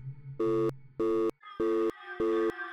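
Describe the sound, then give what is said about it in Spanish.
A phone's disconnect tone after a call is cut off: four loud, evenly spaced electronic beeps in a steady on-off rhythm, with a faint hum and murmur of background sound filling the gaps between them. “La llamada fue cortada.”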